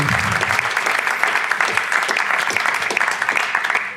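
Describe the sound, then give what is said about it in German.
An audience gives a hearty welcoming applause for a guest preacher, clapping steadily for several seconds, a dense, even patter of many hands with no pause or build, loud throughout and no voices standing out. “Und zwar lasst ihn uns mal mit einem herzlichen Applaus willkommen heißen”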